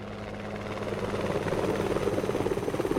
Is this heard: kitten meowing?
no